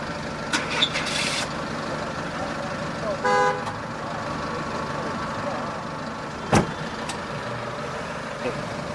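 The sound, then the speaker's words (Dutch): A white van gives one short, moderately loud honk of its horn over steady traffic rumble, with a couple of brief knocks and clatters around it. “Welke witte bus is dat van”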